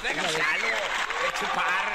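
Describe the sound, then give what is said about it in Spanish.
Steady, dense applause fills the whole moment, with excited voices whooping and cheering through the clapping at a constant, lively level. “Pongan unos pinche aplausos,”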